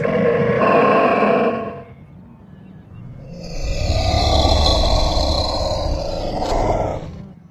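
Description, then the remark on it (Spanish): A glyptodont calls out to its companions with deep, rumbling grunts and roars in two loud bursts, the second longer and rougher. No one speaks. “El gliptodonte parece estar llamando a sus compañeros.”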